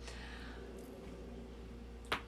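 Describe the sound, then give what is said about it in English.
A single sharp crack as a person snaps their neck, heard once near the end over a low steady background hum, with no talking. “I just snapped my neck. I hope you guys can hear that.”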